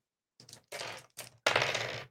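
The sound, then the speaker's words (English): Percentile dice for a D100 roll clatter and tumble across a hard tabletop in several quick bursts, ending in a louder rattling roll, fairly loud with no talking. “Go right. ahead and roll a D one hundred.”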